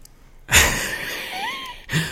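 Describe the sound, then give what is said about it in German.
A drink can is cracked open: a sharp pop followed by a steady fizzing hiss that lasts over a second, then fades out with a brief rustle at the end. “Jetzt mache ich den Shitstorm, die okay. Shitstorm-Dose auf.”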